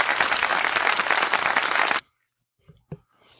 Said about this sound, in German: Ich spiele nochmal kurz Applaus ein.